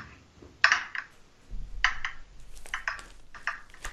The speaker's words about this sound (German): Oh, der hüpft aber heute der Würfel.